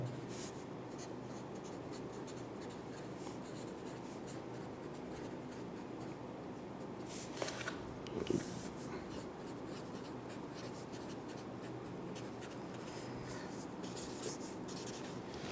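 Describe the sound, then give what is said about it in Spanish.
A pen scratches steadily across paper as someone writes a quote in a book, with continuous faint scribbling strokes and a couple of small taps midway, with no talking. “¿Que la escribo? La, escribes aquí y luego. va, va, va. Pongo aquí el quote.”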